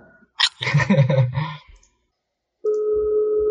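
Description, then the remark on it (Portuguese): A phone call being dialed on a phone set to speakerphone: a quick burst of clicking and tapping, a short pause, then a steady electronic phone tone sounds clear over the speaker. “vou ligar pra ele.”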